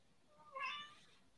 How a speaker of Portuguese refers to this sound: Olha, vocês me desculpem pelo gato hoje, que ele está ele tá atacado. Tem, tem comida lá. E eu não sei o que, que ele quer.